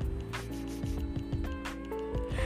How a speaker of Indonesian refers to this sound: Binatang ini namanya nyamuk. Anak-anak, nyamuk ialah binatang kecil yang cukup berbahaya karena dia bisa menimbulkan penyakit.